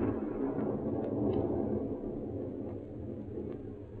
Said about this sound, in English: That storm's going to break any minute now.